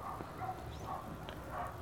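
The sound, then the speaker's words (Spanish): Several dogs bark repeatedly, a series of short, fairly faint yaps and bow-wows spaced about every half second, with no one speaking. “Coño a la madre, malditos perros, estoy filósofo, huevón.”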